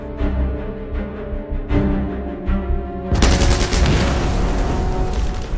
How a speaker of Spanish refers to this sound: A pesar del ataque inicial, los canadienses se siguen enfrentando a los intensos disparos que están realizando los defensores alemanes con armas pequeñas.